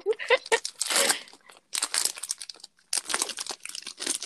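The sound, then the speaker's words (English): Loud crinkling of plastic food packaging being handled and opened, in three bursts of crackly rustling separated by short pauses, with a brief voice sound at the start. “Oh my god, it is no, nah, it's so crinkly.”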